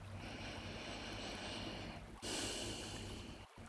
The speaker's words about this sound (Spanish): Terminamos respirando profundamente varias veces.